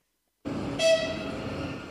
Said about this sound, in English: At the Kharkiv train station, police still don't allow passengers to wait on the platforms or in the Grand Arrivals Hall due to the threat of incoming mortars. Passengers wait underground until just before a train pulls in.